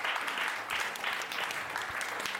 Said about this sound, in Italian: un applauso